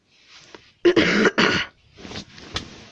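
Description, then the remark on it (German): A person coughs upward, giving two loud, harsh coughs in quick succession close to the microphone, followed by softer breathy throat noises and a faint rustle; no one speaks. “Dreh dich weg vom Mikrofon, wenn du hustest.”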